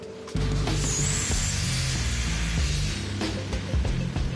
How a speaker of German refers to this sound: An der Bohrmaschine arbeiten die Bergleute in der Regel zu zweit oder zu dritt. Sie wiegt stolze 40 Kilogramm.